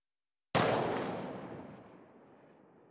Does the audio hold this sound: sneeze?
no